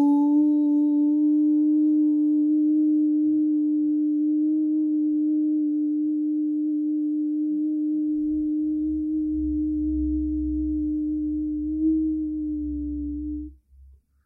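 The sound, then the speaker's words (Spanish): A single voice holds the chanted syllable of the mantra "Hiu", sung with a Spanish J sound, on a steady, mid-low pitch for about thirteen seconds, unwavering and fairly loud, with a faint low rumble entering partway through before it abruptly stops. “Este mantra se escribiría H-I-U, pero se canta como si fuera una J para nosotros que hablamos castellano. Entonces, sonaría algo así.”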